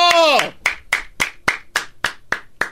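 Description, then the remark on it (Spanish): A brief voiced exclamation, then a single person claps their hands about eight times at a steady, fairly quick pace, each clap sharp and crisp with nothing else going on. “No, pues no me aplaudas ah, ah, pues tú, ah.”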